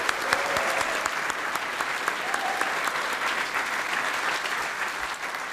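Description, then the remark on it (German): A crowd at a special event in the Swiss Embassy claps steadily for several seconds: dense overlapping hand claps forming a continuous wash of applause at an even, moderately loud level, with no voices standing out. “Ja, ihr könnt ruhig nochmal klatschen.”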